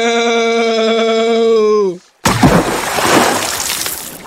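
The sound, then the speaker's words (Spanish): A sustained, slightly falling tonal cry breaks off, then after a brief silence a loud, broad splash bursts out and churns and fizzes for a couple of seconds as two goats fall into a river when the log they stand on breaks under their weight. “El tronco se rompió debido al peso de las cabras y ambas cayeron al río, donde, llevadas por la corriente, sus dueños las apresaron nuevamente.”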